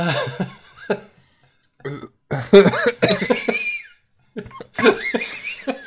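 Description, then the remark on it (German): Spluttering coughs after a sip of energy drink goes down the wrong way: irregular bursts of throaty, gurgling hacks and strained gasps, loud and uneven, with short silent pauses between them and no talking. “habe eben gerade ein bisschen Energy-Drink in die Speiseröhre gekriegt.”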